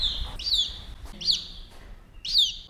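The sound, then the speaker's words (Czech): Crowned lapwing chicks in a rearing facility call in three thin, high-pitched peeping bursts with quick downward sweeps, spaced about a second apart over a low background rumble. “Máme tu momentálně malé čeky korunkaté. Přisunu mikrofon”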